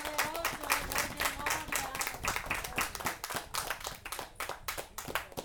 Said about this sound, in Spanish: Amén. Amén. Denle palmas al Rey de Reyes y Señor de Señores.